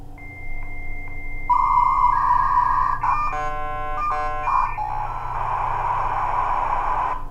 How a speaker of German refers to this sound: Kommunikation mit Gott, für viele von uns klingt es vielleicht wie früher, damals, als man noch mit Modem ins Internet gegangen ist. Wer kennt das noch? Zeiten mit Modem.